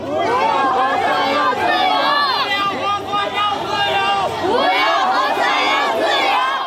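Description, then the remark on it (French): A dense crowd of hundreds of protesters shouting and chanting slogans against the QR code and the zero-Covid policy, many voices overlapping in a loud, continuous roar with rising collective yells, energetic throughout. “Oh moi, quand je suis arrivé, il y avait une foule très compacte, des centaines de personnes, et il y avait aussi des centaines de policiers avec des gens qui lançaient des slogans.”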